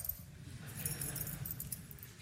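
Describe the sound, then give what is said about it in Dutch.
A bunch of keys jangles in short, bright metallic bursts for a couple of seconds, fairly quiet, over a low room rumble with no talking. “Die sleutels.”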